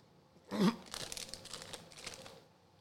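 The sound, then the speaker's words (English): Someone chews flaming hot popcorn, a loud initial crunch followed by a steady run of softer, crinkly crunching bites that fade out after a couple of seconds. “He's chewing popcorn. Hold on, flaming hot popcorn.”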